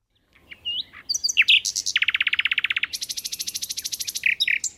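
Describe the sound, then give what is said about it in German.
A nightingale, a small brown bird, sings in a forest at night, mixing quick varied whistles and chirps with long, rapid trilled rattles that repeat in even pulses, with no voices present. “Wer diesen kleinen braunen Vogel im Wald hören möchte, muss sich die Nacht um die Ohren schlagen. Denn die Nachtigall, wie der Name schon andeutet, singt nur in der Nacht.”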